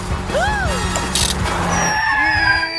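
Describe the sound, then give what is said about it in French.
A car driven by Zig brakes hard in an emergency, its tires screeching in swooping, wavering squeals over a loud, rumbling engine, with a short burst of hiss midway and a fainter squeal near the end. “Et Zig freine en urgence”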